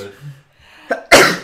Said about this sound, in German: Gesundheit.